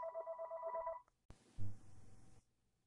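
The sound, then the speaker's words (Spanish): A phone rings with an incoming call, a bright, warbling electronic tone for about a second, then stops abruptly, followed by a sharp click and a burst of muffled handling noise. “Disculpen ustedes por el ruido del teléfono. Era una llamada.”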